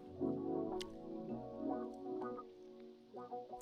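Gurgling and dripping from coffee brewing, a steady wet burbling with a few sharper drips and sputters spread across the few seconds, no one talking.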